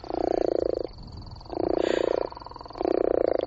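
gopher frog call

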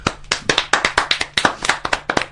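hand clapping

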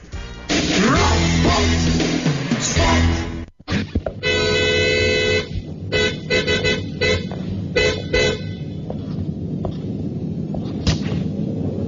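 car horn honking

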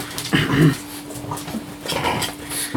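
dog whimpering

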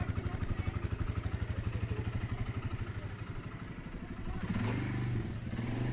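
motorcycle engine

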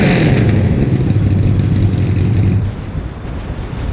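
car engine revving loudly

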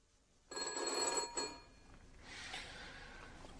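telephone bell ringing

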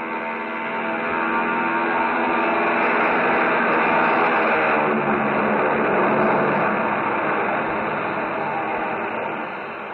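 airplane taking off

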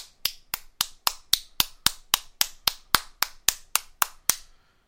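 round of applause

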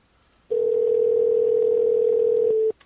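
telephone dial tone

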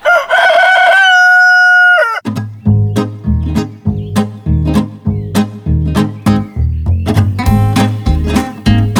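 rooster crowing

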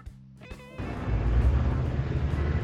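bus interior engine noise

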